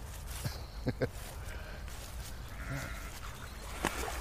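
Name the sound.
sheep bleating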